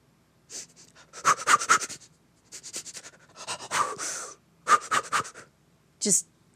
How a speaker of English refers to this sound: There's a shorter one called chaotic breathing. So, you know how when we're nervous, we're always kind of upper chest. Yeah, short. Well, it, chaotic breathing almost calls it out. So it's like,